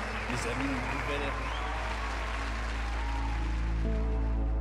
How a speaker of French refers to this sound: L'audience applaudissait à tout rompre.